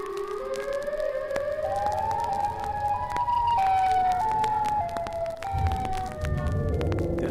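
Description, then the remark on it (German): A wailing siren rises steadily in pitch, swelling into a shrill, electric-sounding scream that holds loud, with a low rumble underneath toward the end. “zu einem höllisch elektrisch klingenden Schrei heranschwoll.”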